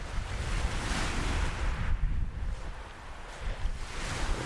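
Soft waves wash and lap steadily against the shore of Cemlyn Bay on the Welsh coast, a continuous gentle surf with a light breeze buffeting the microphone, no voices present.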